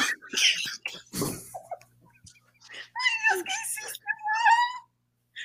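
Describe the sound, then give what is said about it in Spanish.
A pet cat meows repeatedly, a series of drawn-out, whiny calls with short pauses between them, plus a brief rustling thump near the start. “Ay, sigue maullando.”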